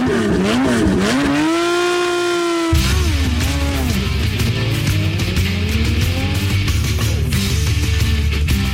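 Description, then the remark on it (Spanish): A rally car engine revs hard, its pitch climbing and dipping through gear changes, loud, with a deep rumbling roar and a rough throaty edge throughout. “Los rallies.”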